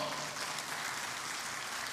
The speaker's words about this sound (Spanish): Si usted lo cree, le da esas palmas fuertes al Señor.